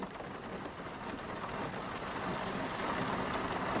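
Steady, dense rainfall hisses without a break at home late at night, with a low rumbling of thunder beneath it that grows slightly louder toward the end. No voices are heard.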